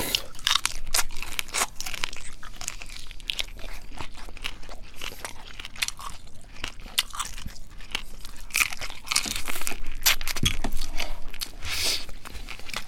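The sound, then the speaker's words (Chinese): Crisp, repeated crunching of shrimp being chewed with the shell on, a steady run of sharp, bright crackles and bites over about thirteen seconds with no talking. “我觉得这这声音还不错，蛮有魅力的，清脆。”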